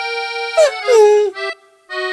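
A dog howls and whines on the Ponte de Pepinos bridge, a drawn-out tonal cry with sliding pitch, broken by a couple of short yelping bursts and a brief pause before one more howl.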